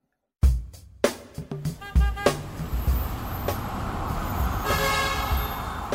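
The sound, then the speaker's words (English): Dense city traffic in the streets of Metro Manila, with repeated car horns honking over a steady rumble of engines, several sharp toots in the first couple of seconds and more continuing over the busy street noise. “Imagine yourself commuting to work through the streets of Metro Manila.”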